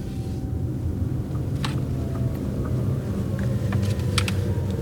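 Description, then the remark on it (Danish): A car rolls slowly down a hill in Brejning by Vejle Fjord, Denmark, being driven down to park. Its low engine and road rumble are steady, as if heard from inside, with a few faint clicks and ticks scattered over the drone. “Og vi, vi må ikke holde lige foran, så jeg kører lige herned, så holder vi her.”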